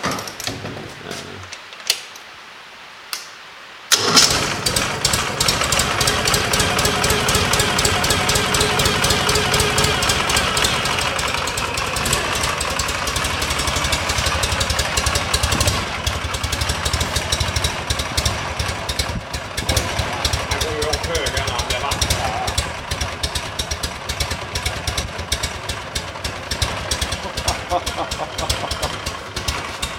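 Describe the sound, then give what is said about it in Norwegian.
A motorcycle engine, its starter repaired with both relays replaced, fires up after a few seconds of quiet and settles into a steady, loud idle with a rapid, uneven mechanical ticking throughout. “Och startaren funker igjen da? Ja, ja, ja, ja. Jag, jag har bytt både relen.”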